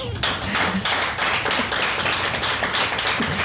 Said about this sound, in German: Also ich stehe, sitze gerade zum ersten Mal auf einer Bühne ohne Vorbereitung. Und das ist ein Applaus wert.